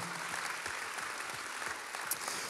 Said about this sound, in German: Und ich möchte ISF St. Gallen an der Stelle einfach Danke sagen und lass ihnen einen Applaus geben.